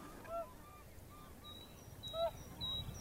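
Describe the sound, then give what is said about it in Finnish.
Swans and geese call outdoors, swans flying past in front of directional microphones while a goose flock stirs: several honking, bugling notes rise and fall, with a steady low rumble of wind or background noise beneath. “Joo, Joutsenan tässä lentelee sopivasti suuntamikrofonien edessä ja nyt pientä liikehdintää myöskin hanhiparvessa, mutta tuo siirto oli hieman lyhyempi.”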